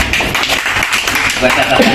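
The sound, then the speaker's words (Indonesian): A crowd claps together in a dense, steady burst of applause that fills the whole moment, fairly loud, with voices mixed in beneath the clapping. “Tepuk untuk kita.”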